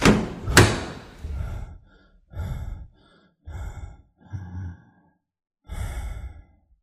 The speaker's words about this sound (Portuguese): Imediatamente tranquei a porta e fiquei um momento em silêncio, a respiração ofegante, o coração quase a sair pela boca, o suor escorrendo da testa.